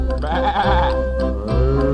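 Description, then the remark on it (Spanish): A lamb bleats twice in quick succession, each call a loud, quavering, nasal cry, the first drawn out and the second starting near the end, with a steady low backing underneath. “bebe, bebe, dice el borreguito”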